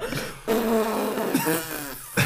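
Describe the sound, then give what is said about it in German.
A long, drawn-out fart sound, buzzy and sputtering, running in a few sustained stretches with brief breaks. It is loud, with no talking. “so ein richtig langer Furz.”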